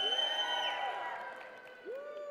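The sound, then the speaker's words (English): A room full of people, including Sandies fans, cheers and whoops, with shrill whistles sliding over a steady crowd roar. A fresh rising whistle, the Sandies' whistle, cuts in near the end. “Anyways, Sandy's whistle, evidently.”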